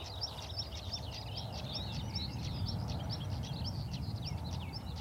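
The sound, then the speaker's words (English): A skylark sings a continuous, rapid, twittering song from overhead, with calls from a stonechat perched on top of a hawthorn mixed in. Beneath them runs a steady low rumble of road traffic noise carried on the breeze. “You can probably hear that stone chat just uh, chatting on top of the hawthorn on my left and the skylark overhead, so I can see quite well.”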